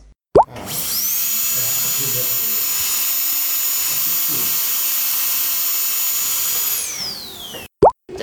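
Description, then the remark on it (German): A dental drill whines at a steady high pitch for about six seconds, then winds down with a falling tone, bracketed by short clicks at the start and end. “Bohrer, wenn die blank sind, dann ist es wie ein anderer. So wie alle Bohrer, die wir benutzt haben, äh, dann da reinmachen.”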